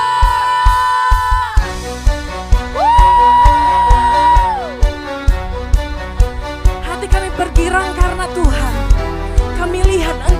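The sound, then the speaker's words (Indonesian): A church audience, standing to praise God, claps in a steady, even rhythm while voices whoop and cheer hallelujah, with long held musical or sung tones running underneath the whole time. “Kita berikan tepuk tangan, sorakan haleluya.”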